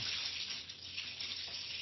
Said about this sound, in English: Sorry, it's hailing away here. I don't know, is it a bit loud?